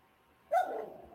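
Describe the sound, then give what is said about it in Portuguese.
A dog, Cacau, growls once, a short, rough snarl that starts abruptly after a moment of quiet and trails off over about half a second, with no one talking. “Tá ouvindo a rosnar?”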